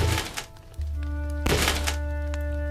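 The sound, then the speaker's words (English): Two heavy, hollow thumps against wood, about a second apart, as Skirnir's horse strikes its hooves against the door of Gymir's dwelling, with a low steady hum running underneath throughout. “Skirnir backed his horse to the door and made his horse's hooves strike against it.”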